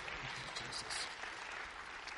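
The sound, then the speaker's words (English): A church audience breaks into sustained applause as a hand clap of praise to the Lord during a morning service, many hands clapping in a dense, steady wash of claps with no voices standing out. “Yes, give the Lord a hand clap of praise this morning.”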